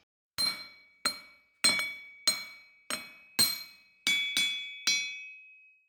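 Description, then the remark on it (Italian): A hammer strikes glowing hot iron on a massive anvil at an old forge about eight times at a steady, slightly uneven pace, each loud blow leaving a bright metallic ring that fades before the next. No voices. “Odore acri e fumo nero riempivano l'aria e giù a battere e ribattere il ferro incandescente sul massiccio incudine, con il pesante mazzotto prima e il martello poi,”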